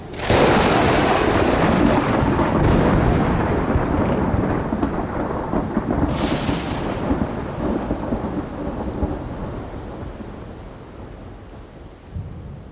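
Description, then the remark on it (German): A thunderstorm rumbles with a long, heavy roll of thunder that slowly fades, over steady rainfall and a brief crackle partway through; no one speaks. “nie dagewesene Forschung, Blitzeinschläge und ihre Auswirkungen auf Panamas Regenwald.”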